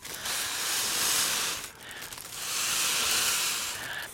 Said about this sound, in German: Äh, da sind unten, habe ich schon so, weil das so Folienballons sind, habe ich so Röhrchen reingesteckt. Ach, hier. Gesteckt. Ja. Soll ich den jetzt aufpusten? Oder wie? Ja, genau. Jetzt könnten wir mal die Ballons aufpusten.